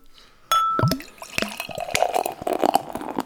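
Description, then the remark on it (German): Beer glugs vigorously from a bottle into a glass, starting with a sharp clink and then a continuous splashing, bubbling pour with frothy fizz that builds a thick head of foam, fairly loud, with no one speaking. “mit viel Schwung eingeschenkt.”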